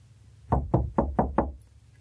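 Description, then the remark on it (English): Five firm knocks on the wooden front door of a house, evenly spaced in a quick steady rhythm, fairly loud, with no voices. “I have been for the last hour, just haven't built up the nerve to go knock.”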